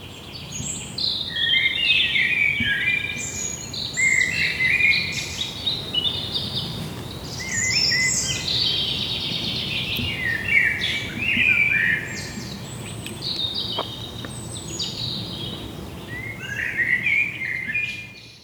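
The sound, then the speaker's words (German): A nightingale sings a long, varied song of bright whistles, trills and chirps in separate phrases, clear over a soft hum of background noise, with no voices. “Vielleicht äh, gebe ich Ihnen das absolut letzte Wort heute und äh, Sie geben uns noch mal ein kleines Ständchen.”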